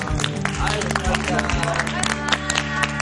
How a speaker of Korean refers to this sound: 오늘 이렇게 중요한 건강 관련 강연 전해주신 교수님께 다시 한번 큰 박수 보내드립니다.